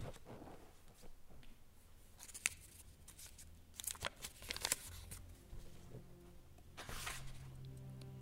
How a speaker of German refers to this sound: denn auch diesmal fiel ein Zettel aufs Bett. Er faltete ihn auseinander und las.